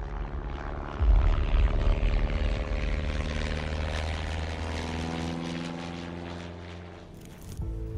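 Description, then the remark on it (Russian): The engine of an American Airacobra propeller fighter plane drones steadily and loudly, its harmonic whine shifting in pitch as the aircraft flies past, with a brief rough burst near the end. “В 1943 году на Кубани я воевал на американском самолете истребителей «Аэрокобра».”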